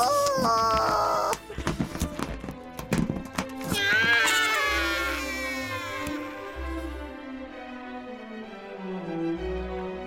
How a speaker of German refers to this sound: Und das bitte großes Solo für mein Luftballonium. Oh. Wagner passt auch zu Mendelssohn. Klingt gut. Mach mal weiter.